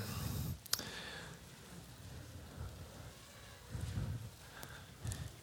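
An audience turns many Bible pages at once to Isaiah 64: soft, scattered paper rustling with a sharp flick near the start and louder swells of rustling later, no voices.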